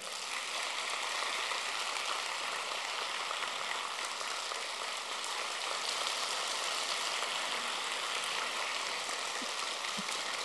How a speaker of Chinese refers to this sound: 好，根据你们的掌声，还得讲几个笑话。